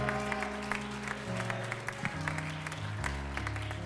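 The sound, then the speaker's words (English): An audience claps their hands in a steady, scattered patter over sustained organ or keyboard chords that shift underneath, filling the room for a few seconds with no talking. “Clap your hands one more time as you're seated today.”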